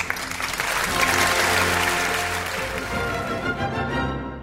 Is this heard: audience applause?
yes